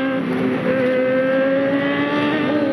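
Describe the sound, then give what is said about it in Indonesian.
A loud motorcycle engine revs steadily, its throaty drone holding a strong, continuous hum with no speech. “suara motor menderu-deru ya keren banget apa kayak Kawasaki kayaknya tuh”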